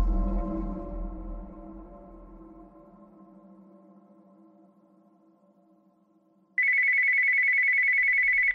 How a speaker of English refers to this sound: I fumbled in the dark for the jangling cordless phone on the bedside table.